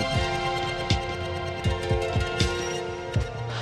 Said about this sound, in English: I'm also running the Atom into the Monsoon, and that's where we're getting that really weird, fluttery, glitchy sounding reverb on that.